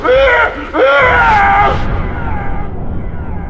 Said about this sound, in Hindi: हिम्मत जुटाकर जब वो जरा सा पलटे तो अपनी बीवी का हंसता चेहरा देख जोर से चीख पड़े